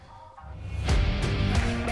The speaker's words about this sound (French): Jingle.